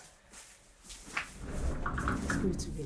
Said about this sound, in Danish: Hun kan høre os allerede, da døren går.